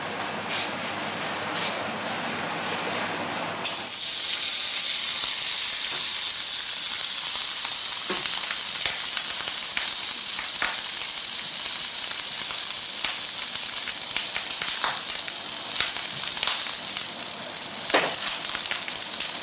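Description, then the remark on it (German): Pork belly sizzles loudly on a hot flat plancha griddle with browned butter infused with garlic, rosemary and thyme, a steady hiss that kicks in after a few quieter seconds, punctuated by scattered sharp pops and crackles throughout as the rind turns crisp. “Mit dem Poppen hört man schon, dass die äh, Schwarte schön knusprig wird.”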